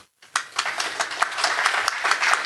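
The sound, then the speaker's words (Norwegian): A brief burst of applause from a small group for a graphic designer, dense overlapping claps starting abruptly after a short silence and continuing steadily at moderate loudness. “Applaus for Ronny Heger.”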